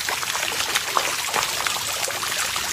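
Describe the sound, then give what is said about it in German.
Steady water trickling and splashing in a park in Emmendingen on a Saturday morning, a continuous bright babble with small irregular splashes and drips throughout, no voices. “Was hier so plätschert, zeige ich euch.”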